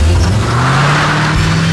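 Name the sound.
car engine revving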